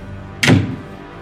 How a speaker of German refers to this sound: ich schlage die Tür vor der Nase zu.